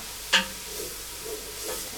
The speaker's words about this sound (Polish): W czasie, kiedy smaży się już nasza